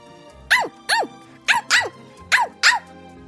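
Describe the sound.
A voice imitates a happy dog out on a walk, barking with six short, bright yaps delivered in quick pairs, loud, with brief pauses between them.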